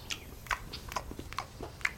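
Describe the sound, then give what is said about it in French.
Chewing on something very hard, with five or six crisp, crunchy bites landing at an uneven rhythm over a quiet background, no talking. “Mm, mais ah, c'est hyper dur à mâcher, ça.”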